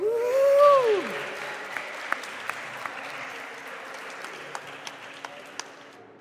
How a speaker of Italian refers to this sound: Fate un grande applauso per